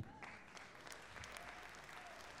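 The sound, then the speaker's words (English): A crowd applauds steadily, a dense wash of many hands clapping with crisp individual claps popping out, holding at an even, moderately loud level throughout. “I appreciate the applause, but it's simple.”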